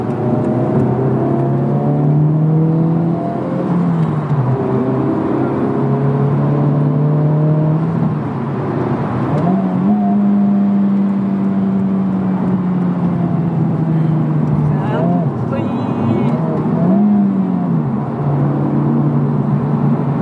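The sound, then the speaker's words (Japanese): A car engine revs steadily in sport mode, its low growl rising and falling in pitch as the throttle shifts, loud and continuous throughout with no voices over it. “であとドライブモードがコンフォートとスポーツ、はい、で今これスポーツなんだけどやっぱ音があちょっと待って”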